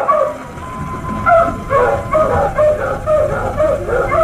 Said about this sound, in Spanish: ¿Escuchan? Lucifer está ladrando.